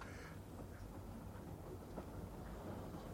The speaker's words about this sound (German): Und nun verschwindet der Zug da wieder hinter einer Baumgruppe. Doch wirklich herrlich. Und wie die Sonne den weißen Rauch durchleuchtet.